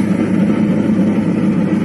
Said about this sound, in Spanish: ese ruido que se escucha es, tengo la puesta las cadenas, obviamente cambia la, la forma de circular.